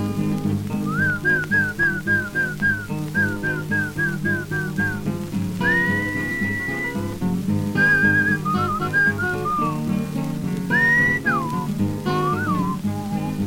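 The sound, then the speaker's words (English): A person whistles to call a horse: a quick run of short, repeated chirping notes, then longer held tones and wavering, sliding whistles, loud over a steady musical backing. “You must whistle when you want your horse to come to you.”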